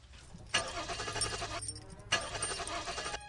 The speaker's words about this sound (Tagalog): Ayan, Parang nawala na yung aso. Subukan mo kaya uli i-start yung kotse.